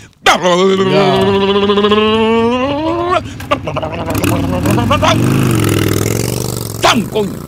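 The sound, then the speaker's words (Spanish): A voice mimics a motorcycle engine revving up, a buzzy sustained vroom with rising and falling pitch lasting several seconds, loud, ending with a few sputtering bursts. “Cogió la motocicleta.”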